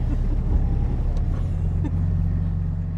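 A four-wheeler ATV engine idles steadily with a constant low rumble and harmonic hum, accompanied by faint clicks and outdoor background noise, as it stops after cows are driven into a new pasture.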